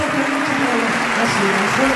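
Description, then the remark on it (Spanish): The audience of the Teatro Colón gives a sustained ovation after a song: dense, steady applause that stays loud throughout, with a hum of cheering voices woven into the clapping. “Ovación. Un teatro Colón en 400 todo.”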